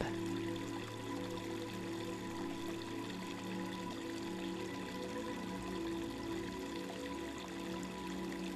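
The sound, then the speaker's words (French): Water flows steadily and continuously in a cool river, a soft, even rushing with no breaks from start to finish. It sits at a moderate level, with nothing else noticeable and no voices. “Méditation au son de l'eau”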